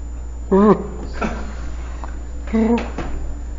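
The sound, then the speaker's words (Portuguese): A person imitates an owl on request, giving two short voiced hoots about two seconds apart, each wavering slightly in pitch, fairly loud over a low steady background hum. “E agora vou pedir para ele imitar alguns bichos. Primeiro, uma coruja.”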